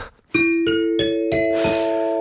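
A bright ding-dong-dang chime plays alone, five clear bell-like notes struck in quick succession and rising in pitch, each ringing on and overlapping into a sustained final chord, marking winning entries in a two-line acrostic poem game on a live show.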